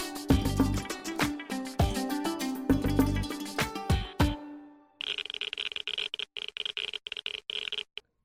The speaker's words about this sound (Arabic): هذا صوت عداد جايجر لقياس حدة بعض الإشعاعات وللكشف عن المواد المشعة.